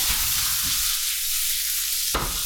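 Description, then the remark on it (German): Food sizzles steadily as it fries in a 24 cm non-stick pan, a continuous hiss with no talking, and a short scrape or clatter near the end, like it being stirred. “So, das ist das Schöne bei dieser Pfanne ist natürlich, äh, hier klebt natürlich im Regelfall ja. irgendwie gar nichts drin.”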